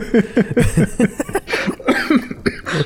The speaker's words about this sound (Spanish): Ay, güey, hasta me da tos.